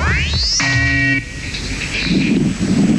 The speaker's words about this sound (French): Radio Ici et Maintenant propose Radio Village. Vous êtes à l'antenne pour 4 minutes environ, juste après le signal sonore. Maintenant.